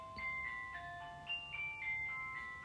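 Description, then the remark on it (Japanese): A bath water heater's electronic chime announcing that the bath has finished heating plays a short, bright beeping melody of several sustained tones, clear, with no one speaking over it. “これがもう恒例となっております。お風呂が沸きましたコール。”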